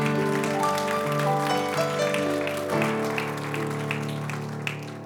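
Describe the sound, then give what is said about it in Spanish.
An audience applauds Christ steadily for several seconds, a dense patter of claps blended with sustained instrumental chords underneath; no one speaks. “Entonces, hermano, déle ese aplauso fuerte a Cristo.”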